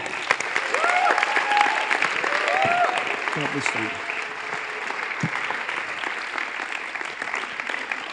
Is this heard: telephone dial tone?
no